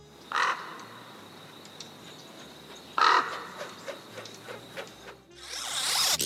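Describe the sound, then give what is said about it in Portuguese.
A crow caws twice, loud and harsh, a few seconds apart, with fainter calls between them, and a rising hiss of noise takes over near the end. No one speaks. “corvo, tudo a ver com a queda da casa de Usher”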